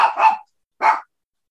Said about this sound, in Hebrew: שמענו את הכלב שלך. זו כלבה